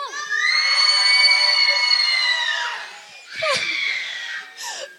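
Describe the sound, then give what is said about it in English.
A loud group of children and young people in a church yell together as loud as they can on a count of three, a sustained, high-pitched roar for about three seconds, followed by scattered shrieks and squeals as it dies down. “I want you to yell as loud as you can on the count of three.”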